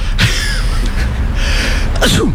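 Several sharp, forceful sneezes from a man with an allergy burst out one after another at uneven intervals over a steady background rumble.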